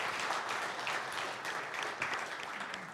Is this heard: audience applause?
yes